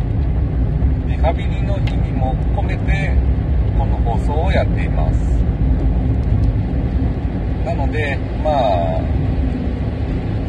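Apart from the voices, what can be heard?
car interior driving noise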